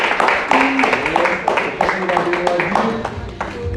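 A crowd applauds steadily for several seconds, dense clapping mixed with cheering and overlapping voices, loud throughout without a clear fade.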